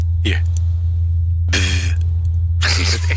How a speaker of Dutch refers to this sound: Je zit een geluid te horen van, van Mars. Maar echt van een klein helikoptertje wat daar dus vliegt. Een is, dus van de, de vierde vlucht.